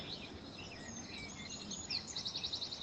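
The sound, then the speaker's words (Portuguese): Birds chirp on a beach in a quick, repeated series of high tweets over a steady background wash, the calls growing denser and more rhythmic toward the end, not loud. “uma praia onde é possível ouvir os passarinhos.”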